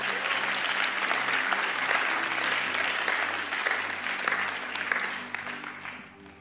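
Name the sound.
audience applause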